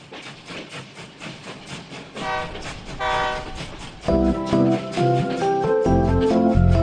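A train rumbles past with a rhythmic clatter, then sounds its horn in short blasts before letting out a long, loud, sustained blare that carries to the end. No one speaks.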